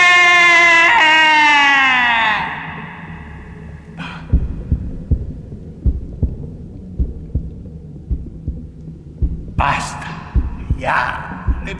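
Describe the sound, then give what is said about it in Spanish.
A high wailing voice trails off, then a loud, steady heartbeat pounds in heavy low thumps, repeating about once a second, with a couple of brief cries breaking in near the end. “Y entonces otra vez, escuchen, más fuerte, más fuerte, más fuerte.”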